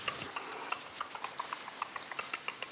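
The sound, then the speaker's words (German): A kangaroo chewing quickly, a fast, steady series of crisp, crunchy clicks, fairly quiet, with no voices. “so nach so einem schnellen, ja, ja nach so einem schnellen Kauen.”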